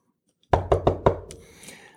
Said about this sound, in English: When she tells her parents about them, they begin to panic when they hear a knock at the cabin door.